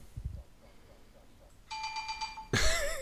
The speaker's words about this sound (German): oh, es klingelt hier.